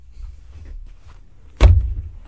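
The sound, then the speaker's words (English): A single solid clunk of a studio door being opened by a man leaving, followed by a brief low rumble as it swings, over a quiet hum with no talking. “No, he's not left yet. He's opening the door.”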